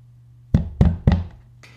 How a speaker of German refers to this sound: So hört es sich an, wenn Sie bei Ihrem direkten Nachbarn klopfen. Also jetzt nicht bei Ihnen zu Hause, aber wenn Sie Abgeordneter oder Abgeordnete im Bayerischen Landtag sind und im Plenarsaal sitzen.